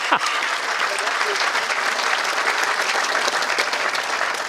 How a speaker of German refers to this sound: Klatschen wir für ihn, komm. Ja. Schön, dass du da bist.